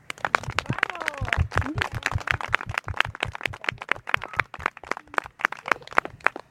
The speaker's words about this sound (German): Es gibt zwar einen ganz, ganz dicken Applaus von allen Erwachsenen für die Kinder.